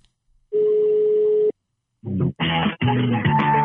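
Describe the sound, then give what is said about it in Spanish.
A single steady telephone ring tone sounds for about a second, clear, while calling the Creo line of OmniLife, followed by a short pause and then a recorded voice beginning to speak. “y marcamos por teléfono a Creo.”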